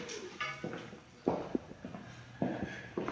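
Footsteps walk across the floor of an eyewear shop, several evenly spaced steps over a steady indoor background hum, with no one speaking.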